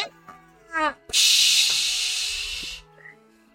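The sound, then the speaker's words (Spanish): A very hot object, thrown through a window into water, hits the water with a loud, steady sizzling hiss that lasts nearly two seconds before cutting off, preceded by a few brief tonal sounds. “lo rompes el, rompes el cristal lanzándolo por la ventana y escuchas un.”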